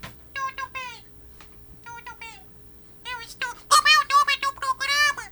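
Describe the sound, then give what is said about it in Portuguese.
A cat in a sack meows in short, high-pitched bursts, a few scattered calls at first, then louder and more rapid meowing near the end, with a faint steady hum underneath. “chamar o gato que tá ali no, no saco.”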